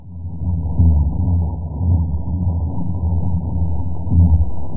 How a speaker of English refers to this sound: these calls and this chorus you know, with, with 165 decibel sounds, lasts for six to six to 10 hours during the spawning season